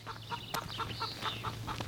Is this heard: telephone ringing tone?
no